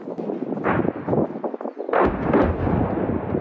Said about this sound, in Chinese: 另外，路面部队原来得弄大炮，真精准的弄到目标区。